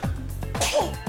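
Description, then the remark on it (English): A single forceful sneeze, with a short voiced intake before the sharp, hissy burst and a brief trailing exhale. “Bless you.”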